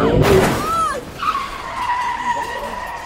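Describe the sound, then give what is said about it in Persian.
A speeding car skids with a loud, sustained tire screech that wavers in pitch, opening with a sharp, noisy burst like an impact as the car hits several of them and its front windshield breaks; fairly loud throughout. “با سرعت ماشین کوبید به چند تاشون شیشه جلوی ماشین شکست”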